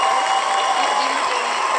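cheering crowd sound effect

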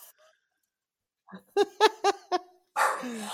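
dog barking

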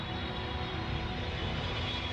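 airplane landing

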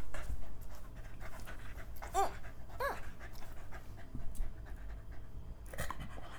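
dog panting excitedly

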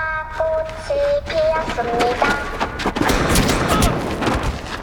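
many gunshots fired

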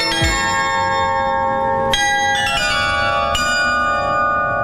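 carillon bells playing

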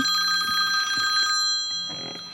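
telephone ringing

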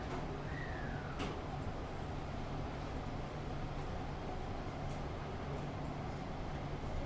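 beijing subway train running

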